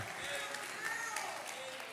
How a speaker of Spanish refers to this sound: Si puede darle un aplauso al Señor, déselo esta tarde.